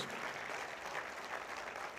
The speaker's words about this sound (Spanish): Dale aplauso fuerte al Señor.